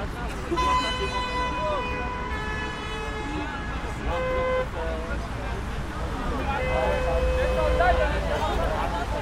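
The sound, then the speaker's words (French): A heavy truck that has just arrived at a road blockade idles with a steady low engine rumble, sounding long, loud horn blasts, one held for several seconds and another near the end, while voices murmur in the background. “Donc là, il y a un camion qui vient d'arriver.”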